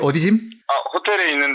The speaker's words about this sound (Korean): 아. 아. 이 전화가 됐다 안 됐다 이래가지고. 아이고, 아이고, 아이고. 그, 혹시 전화 다음에도 끊기면 제가 다시 할게요, 전화.